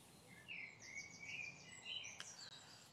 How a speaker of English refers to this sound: Beautiful bird song.